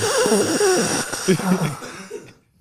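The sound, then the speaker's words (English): A person imitates heavy, asthmatic breathing with loud, raspy, voiced wheezes whose pitch wavers, running for about two seconds before trailing off into silence. “Y'all do the heavy breathing in between.”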